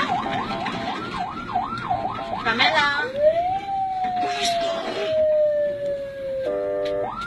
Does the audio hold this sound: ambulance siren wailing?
yes